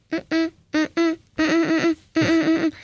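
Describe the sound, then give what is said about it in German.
A person hums an imitation of their alarm clock's beep, clear: two pairs of short steady-pitched tones, then longer sustained hums that wobble slightly, with brief gaps between. “Also ich werde nicht von meinen Eltern geweckt, sondern ich habe auch so einen Wecker, der mich immer weckt. Und was macht der für Geräusche?”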